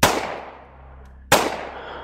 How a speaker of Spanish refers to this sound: Lo tumban en el suelo y Collins le da dos balazos certeros que acabaron con la vida de él.